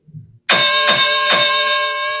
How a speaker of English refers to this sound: Uh, ring the bell, please. Ringing the bell.